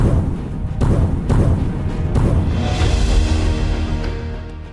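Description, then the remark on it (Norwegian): Eli Hagen's heavy car thuds down all 17 steps of the stairs at Slottet, the Norwegian royal palace: several loud, irregular impacts over a deep rumbling roar, the clattering gradually settling toward the end. No voices. “Hele Norge står stille idet Eli dunker ned samtlige av slottets 17 trappetrinn.”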